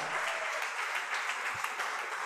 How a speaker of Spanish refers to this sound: Dale fuerte el aplauso al Rey de Gloria.